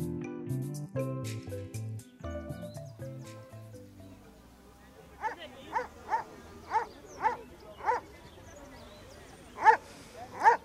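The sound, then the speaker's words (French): After a few seconds of music, a dog barks repeatedly in a steady rhythm, about nine sharp barks, with the last couple the loudest. “Soit tu donnes un bout de pain à ce chien ou tu le fais avaler du poison.”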